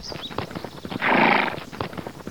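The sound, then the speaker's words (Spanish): A horse clip-clops with steady, rhythmic hoofbeats, then lets out a loud, drawn-out whinny before the hooves continue at an even pace. “¡Tobías! ¡Tobías! Le gritaba a su caballo.”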